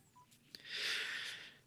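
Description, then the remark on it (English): A short burst of telephone dialing tones as a phone call is placed: a brief beep and a click, then a bright, hissy electronic tone that swells and fades over about a second, fairly quiet, with no talking. “Let me give him a live call on the podcast here.”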